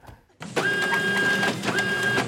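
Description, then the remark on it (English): A photocopier whirs into action and runs steadily, with a mechanical hum and a high whine as it scans a passport, loud, no voices. “Hey, why are you Xeroxing a passport?”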